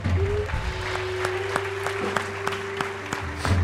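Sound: audience applauding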